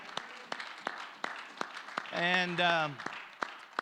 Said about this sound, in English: Let's give the Lord a mighty hand clap.